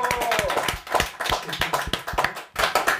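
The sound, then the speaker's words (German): Applause from a real live audience at an evening show, not a clapping machine: dense, rapid clapping from many hands, steady and fairly loud for about three seconds, with a brief dip near the end before picking up again. “Da können wir einmal Applaus hören, oder?”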